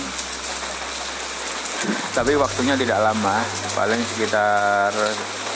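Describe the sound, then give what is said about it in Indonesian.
Light rain patters steadily outside in Jakarta in the late afternoon as a soft, continuous hiss in the background, while a person talks over it in the foreground. “Cerita sore dengan rintik rintik hujan”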